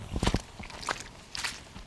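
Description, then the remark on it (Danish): Squelchy footsteps of people in practical shoes walking through mud left by a very rainy year, recorded with the microphone turned downward: a few wet, sucking steps in an uneven walking rhythm, moderately loud with soft slapping and smacking textures and no talking. “Øh, så går vi i mudder lige nu.”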